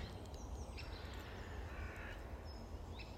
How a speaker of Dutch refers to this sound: En dan hoor je een vogel.